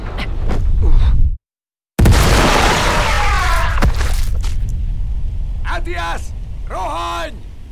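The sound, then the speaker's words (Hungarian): A single loud cannon blast erupts abruptly after a moment of silence, its roar trailing off into a rumbling, crackling decay while voices shout. “Aszkal, Orel, Molox, fogjátok le, mielőtt újra tüzelne.”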